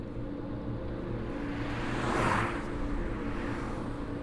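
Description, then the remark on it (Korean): Steady roar of cars driving on a highway, with one vehicle swelling louder as it passes around the middle, then fading back into the continuous rumble. No voices. “불끈 달아오른 고속도로를 차들은 달리고 또 달렸다.”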